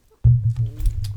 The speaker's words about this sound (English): Oh yeah, that that's my stomach.